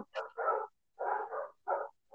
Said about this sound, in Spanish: Perdón ¿se escuchan perros. Eh, si es que se escuchan, no sé si se escuchan.